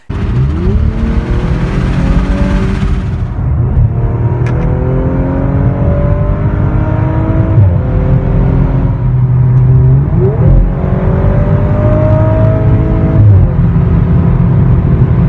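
The six-cylinder engine of an RS4 sports car revs hard, its loud, steady roar climbing in pitch again and again as it pulls through several gear changes, with no voices.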